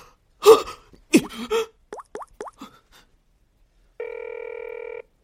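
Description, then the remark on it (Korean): A telephone rings with a single steady electronic trill about a second long and nobody picks up. It follows a few breathy vocal bursts and a quick run of soft, dripping plops. “왜 전화 안 받는 거야?”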